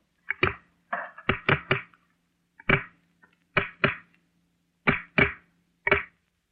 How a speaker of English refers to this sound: That was the cracking of some pieces of wood slid forcibly over each other. Changes of temperature or moisture cause these little noises continually.